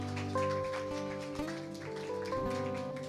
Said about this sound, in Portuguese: Pode aplaudir Jesus por isso, amém?